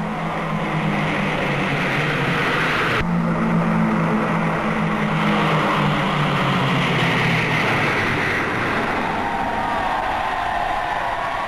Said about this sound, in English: The royal party glance up as squadrons of RAF jet fighters sweep past in tribute.